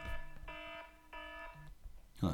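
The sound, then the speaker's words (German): A soft electronic ringing tone sounds in two even bursts of about half a second each, bright and harmonic, fairly quiet, with a faint low hum and a brief rustle at the end. “leises Klingeln heute, aber man hat es vielleicht ja, gehört.”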